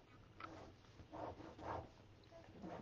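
A pen scribbles across paper while drawing, in a few short, scratchy strokes, soft, with brief pauses between bursts and no one speaking.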